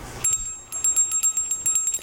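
The Liberty Bell, a cracked solid-brass bell, rings in quick, repeated strikes, its bright metallic tones sustaining and shimmering between hits. Clear, with no voices present.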